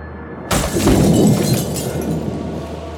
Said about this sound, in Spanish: Una paloma se estrella contra el cristal y cae a los pies de Stephen. La sangre se diluye en la lluvia.